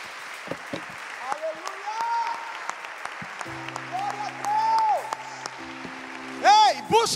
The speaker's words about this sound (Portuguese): E se você crê nisso, aplauda o Senhor.